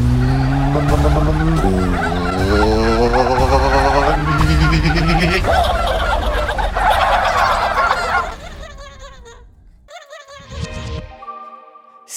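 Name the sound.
turkey gobbling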